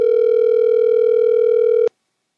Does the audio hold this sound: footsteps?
no